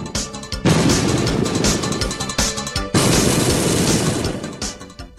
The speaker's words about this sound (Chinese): 这时候，远处又传来一阵爆破声